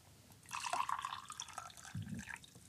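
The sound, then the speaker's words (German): Hot water pours steadily for a couple of seconds, a bright splashing, trickling stream with small drips, moderately loud, with no voices. “Und ähm, es ist eben anscheinend so, dass heißes Wasser viel weniger viskos ist. Also das ist nochmal das heiße.”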